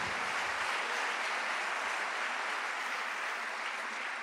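An audience applauding the Lord in the morning: many hands clapping in a dense, steady wash of sound that holds at an even, fairly loud level for several seconds, with no voices over it.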